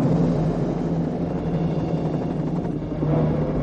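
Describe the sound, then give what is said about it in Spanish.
Loud, steady interior drone of a helicopter engine and rotors as it flies over a forest beside a river, a dense low rumble with a constant humming tone filling the whole stretch, no voices and no change in intensity. “Dentro del helicóptero.”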